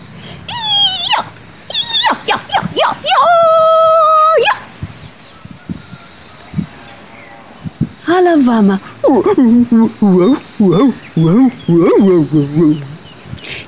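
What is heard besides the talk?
dog growling and barking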